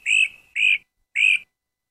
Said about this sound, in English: Great crested flycatcher. I was wrong. It's a great crested flycatcher.